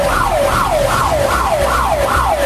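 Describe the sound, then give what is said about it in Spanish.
A Civil Protection Commission alarm siren, activated during flooding as vehicles and a bus are evacuated, wails loudly, its tone sweeping rapidly up and down in about five even cycles over a steady rush of background noise, with no voices. “Ya activamos las alarmas de acá de la Comisión de Protección Civil.”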